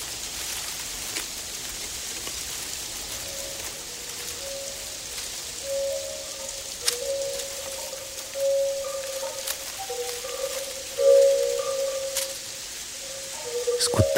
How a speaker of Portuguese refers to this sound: Abrimos os olhos e estamos no meio de um lindo jardim, cercado por um bambuzal onde o vento sopra gentilmente. O farfalhar, sutil e delicado, sussurra coisas bonitas em nossos ouvidos.